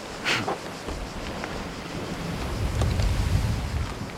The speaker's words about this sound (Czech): A cítím vítr.